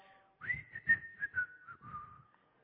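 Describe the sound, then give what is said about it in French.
Someone whistles a short, cheerful melody, the clear notes gliding and stepping between pitches for about two seconds before trailing off. “Il rentrait du travail en sifflant.”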